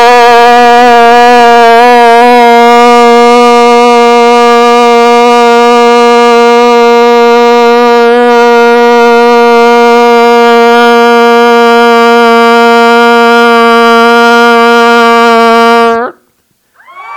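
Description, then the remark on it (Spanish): A loud, steady horn blast sounds for about sixteen seconds, a single sustained blaring note held without a break, powerful, then cuts off abruptly into silence. “A ver, yo voy a tocar la, bocina acá y luego tú vas a gritar, ¿ok?”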